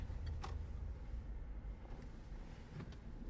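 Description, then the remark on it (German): A car rolls slowly along with a steady, low engine rumble heard from inside, a couple of faint clicks and rattles breaking through, as it pulls into a parking area. “Äh, so Parkplatz, oder? Ja, ich bin, glaube ich, falsch reingefahren.”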